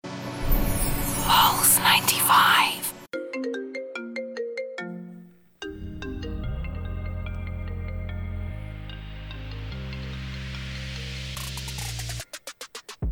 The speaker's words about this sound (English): whenever you hear this ringtone, you know we're going to be talking about the iPhone launch